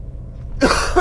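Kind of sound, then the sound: human body sound, coughing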